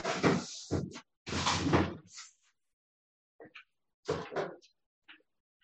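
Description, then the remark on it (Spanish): A kitchen door is opened with a burst of loud clunks and rattling from the handle and frame, followed by a few softer knocks and clicks as it settles. “Tía, yo te abro la puerta a la cocina.”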